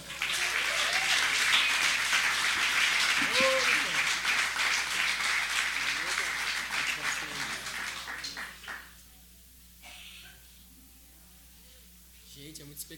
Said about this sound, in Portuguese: E eu vou chamar agora o Marcel, que veio lá do Espírito Santo, com a sua poesia inútil, como ele diz. Uma salva de palmas para Marcel.